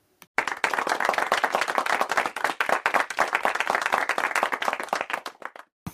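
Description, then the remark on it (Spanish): A burst of clapping starts abruptly and carries on steadily for several seconds, dense and fairly loud, like a small crowd applauding, then stops suddenly. “Pero con esfuerzo y dedicación he conseguido aguantar, así que un aplauso por mi paciencia.”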